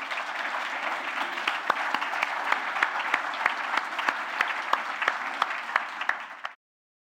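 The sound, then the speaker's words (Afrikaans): Steady audience applause for two men at a festival, a dense wash of many hands clapping with a few sharper individual claps standing out, holding at an even level for about six and a half seconds before cutting off abruptly. “Kom ons gee vir die twee here 'n heerlike hande klap.”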